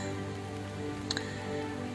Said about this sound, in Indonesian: Suara perpaduan hujan rintik dan jam dinding berwarna hitam di kamar berkolaborasi menjadi satu suara. Gerimis yang sedari pagi masih tetap bekerja seolah-olah tak mau berhenti begitu saja.